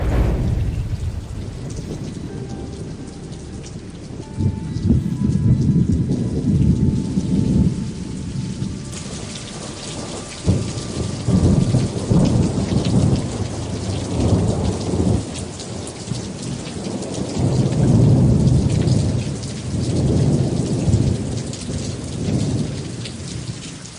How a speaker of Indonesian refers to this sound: Ketika senja tiba, langit tertutup awan tebal menghitam. Kilat dan petir menggelegar sambung menyambung Hujan lebat pun turun bagai dicurahkan dari langit.